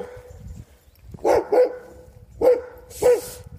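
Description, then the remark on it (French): A dog barks four times in two quick pairs, sharp, with low background rumble between the barks and no talking. “Oh, il y a un méchant chien-chien.”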